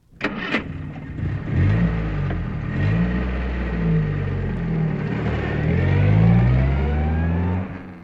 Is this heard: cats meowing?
no